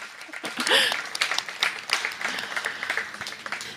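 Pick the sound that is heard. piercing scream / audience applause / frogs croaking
audience applause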